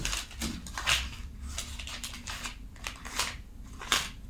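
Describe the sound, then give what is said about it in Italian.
Crisp rustling and crackling of pages of the newspaper Il Messaggero being handled and turned to page 8, with several sharp papery swishes over about four seconds and no talking. “Prendo il messaggero perché a pagina 8 la mette così”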